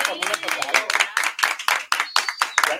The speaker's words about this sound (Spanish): Oigan, hay que, hay que darle un aplauso porque tenemos un integrante el día de hoy.